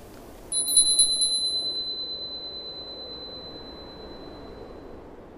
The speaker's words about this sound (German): Das Weihnachtsläuten, das Christkind, die Glöckchen, es geht mir durch die Seele.